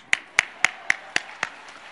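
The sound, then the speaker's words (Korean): Six sharp, evenly spaced claps in a steady rhythm, like a church audience clapping together in unison, each crisp and bright with a quiet background between them and no talking. “박수 한번 해주시죠.”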